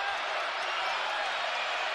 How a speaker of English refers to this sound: The crowd really into it after that big three.